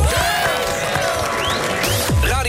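A crowd applauds steadily, mixed with cheering and high rising whistles, holding at a loud, even level for a couple of seconds without any talking.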